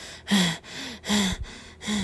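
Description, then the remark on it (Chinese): Heavy, rhythmic panting: three loud, breathy bursts alternating with softer inhales, each exhale rough and airy with a slight voiced edge. No talking, just labored breathing. “呼呼的喘息声，会是谁呢？”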